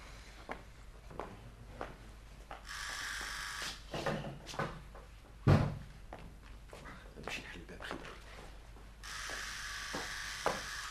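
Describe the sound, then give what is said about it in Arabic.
Scattered knocks on a door sound against a steady hiss, with one loud, heavy thump near the middle and lighter taps around it. Muffled voices murmur faintly in the background. “آه هذا الباب تعرفش كيفاش يلزم هاللي جاء نخليه يستنى شوية باش يظن لي أنا مشغول ياسر”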